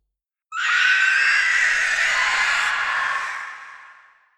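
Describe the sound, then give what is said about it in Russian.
A single piercing, shrill screech starts abruptly and holds for about three seconds before fading out, loud, with no voices around it: a stern mooring line on a boat snapping under strain while the boat reverses into its berth. “Да-да, тот самый звук атакующего Назгула на драконе.”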